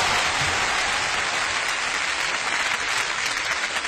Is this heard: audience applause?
yes